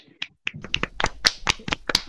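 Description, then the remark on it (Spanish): Brief scattered hand clapping from a few people, sharp irregular claps starting sparse and then picking up into a quick, uneven patter of about fifteen claps, with no voices. “Un aplauso”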